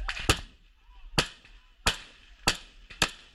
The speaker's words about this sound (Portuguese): Atiradores do Hamas fazem uma série de disparos contra banheiros químicos.